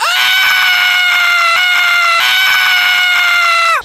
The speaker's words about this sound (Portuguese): Aumentou a frequência da sua respiração de uma forma estranha e subitamente começou a berrar. Colocando as mãos nos meus ouvidos, eu implorava: pare de gritar! mas ele parecia não me ouvir e continuou cada vez mais alto.